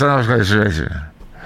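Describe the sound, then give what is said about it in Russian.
A voice imitates a muffled announcement by a LiAZ bus driver speaking into the cab microphone held close to his mouth, a garbled, nasal babble with no clear words lasting about a second, fairly loud, then trailing into near silence. “Непонятно было, что он говорил, но вот этот вот звук э, микрофонный именно – как, как, такое ощущение.”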